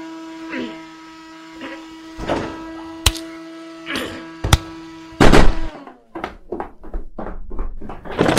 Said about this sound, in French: c'est l'homme de ménage qui à chaque fois euh, il vient faire euh, passer l'aspirateur quand il y a des invités pour faire le beau là, parce qu'il se croit intelligent.